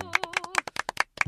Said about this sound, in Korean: 자, 박수. 네.